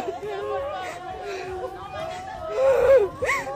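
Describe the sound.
Several distressed voices of families overlap in a hospital courtyard, wailing and sobbing with wavering, strained pitches, rising to louder anguished cries near the end amid general crowd murmur.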